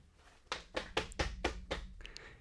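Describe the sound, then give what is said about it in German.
Six steady, firm knocks on a door in an even rhythm, with no one speaking, followed by a brief quiet pause. “Da, da klopft's.”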